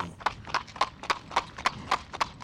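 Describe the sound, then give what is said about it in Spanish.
Horse hooves clip-clop in a steady, even rhythm, about nine crisp hoofbeats in quick succession, clear with no talking over them. “Cuenta la leyenda que un campesino viajaba a caballo en una noche oscura y lluviosa”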